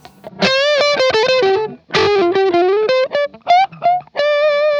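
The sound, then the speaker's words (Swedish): Electric guitar played through mild overdrive with the volume rolled back to clean up the tone, ringing single notes and short phrases with bright, slightly gritty harmonics, loud, no voices. “Hur låter, hals, hur låter halsmycken uppklinad?”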